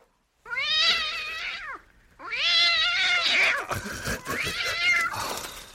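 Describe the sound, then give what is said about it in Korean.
A cat in a shop gives two long, drawn-out, high-pitched meows, then breaks into a rougher, wavering yowl. The cries are loud and clear, with no talking. “아버지의 가랑이 사이로 입술을 훔치며 날렵히 빠져나간 고양이에 의해 가게 안은 사탕 조각이 하나 제대로 성한 것이 없을 정도로 분탕질이 돼 있었던 것이다.”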